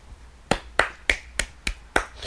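A quick run of about seven crisp, sharp finger snaps given as applause, in a loose, slightly uneven rhythm with no talking.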